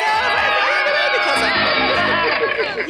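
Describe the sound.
A loud, dense crowd cheers and whoops continuously, many excited voices shouting together in a sustained celebratory roar for the whole few seconds, played as a sound effect for a first-time caller.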